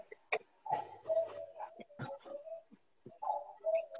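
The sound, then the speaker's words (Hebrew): A voice mimics a cuckoo clock: sharp tongue-click ticks mixed with short, hooting tonal calls that rise and fall in an uneven rhythm over about four seconds. “שעון קוקייה?”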